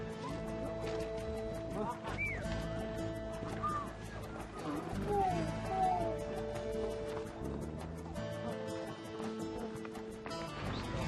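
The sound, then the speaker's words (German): Camels in a caravan descending a mountain path into the Rift Valley, where cars can no longer pass, grumble and groan in a string of drawn-out, wavering calls that rise and fall in pitch, over a steady busy din with scattered clattering hoof sounds. “Autos können hier nicht mehr passieren, aber auch die Kamele sind nicht begeistert.”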